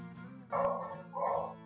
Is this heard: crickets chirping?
no